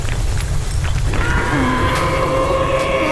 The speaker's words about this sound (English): Uh, that hideous roar was not from this world. From the side of the building behind me and the end of the street, a monstrous shadow started looming closer.